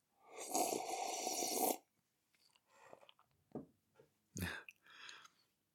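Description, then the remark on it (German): A voice imitates slurping tea from a teacup: one long, loud, breathy slurp, followed by softer smacking, gulping and sipping noises with short pauses between them. “und ich sehe, wie sie in einem dieser Ärmchen eine Teetasse in der Hand hält und da genüsslich schlürft an dem Tee.”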